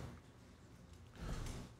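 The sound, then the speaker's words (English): A door slides open as people come in, with a low rumbling scrape that swells about two-thirds of the way through. It is moderately loud, over a dull background hum. No one speaks. “We have people right here, bro, that are coming in. Yeah, that's what I'm telling you. Open the door, bro.”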